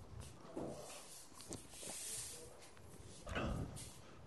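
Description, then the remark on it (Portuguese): Faint handling of a door, with a few scattered scraping and knocking bursts over a steady background hiss, the loudest one near the end. No one speaks. “Alguém mexeu na porta aí?”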